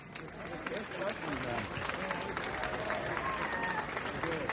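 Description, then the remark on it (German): Steady applause from a crowd in the Elberfelder Straße, dense overlapping claps at an even level throughout, with faint murmuring voices mixed underneath. “Tja, und wir sagen noch einmal recht herzlichen Dank, aber ich glaube, kann der Applaus in der Elberfelder Straße nicht ein bisschen stärker sein?”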